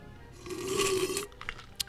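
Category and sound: food or drink, sipping coffee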